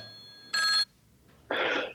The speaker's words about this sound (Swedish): Ja, nu ringer det bra. Kör! Vi svarar.